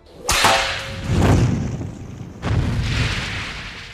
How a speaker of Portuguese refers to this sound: E daí a chicotada vem na sua face. você começa a tomar várias chicotadas.